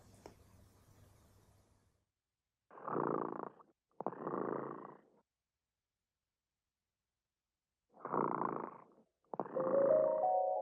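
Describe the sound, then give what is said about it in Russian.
A sleeping cat, Dremota, purrs in rhythmic rumbling bursts, two breaths, a pause of a few seconds, then two more, with no voices over it. “Кот дремота сладко спит, Песенку свою урчит.”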